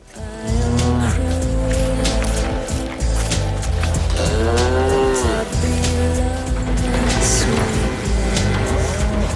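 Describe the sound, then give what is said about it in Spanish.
Cows on a farm moo repeatedly and loudly, from the documentary film Cow directed by Andrea Arnold; their long bellowing calls rise and fall over a steady bed of farmyard noise, with no one speaking. “Bueno, ahí lo que estamos escuchando es a las protagonistas de la película, que son unas vacas en una granja, bueno, adornado con una música también”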